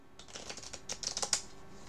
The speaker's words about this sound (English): I hear you shuffling. I hear you shuffling. Kind of a shuffle. Kind of a shuffle.